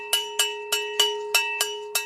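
A large bell hanging from an ox's neck swings and clanks about seven times in two seconds, each uneven strike leaving a steady metallic ring that hums beneath the next. No voices.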